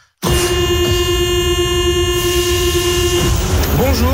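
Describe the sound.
A loud, sustained metro train horn blares in one steady, harmonic-rich blast for about three seconds over rumbling background noise, then cuts off as a voice starts speaking.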